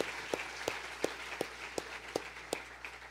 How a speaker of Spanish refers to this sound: Vamos a darle un aplauso al Señor por eso.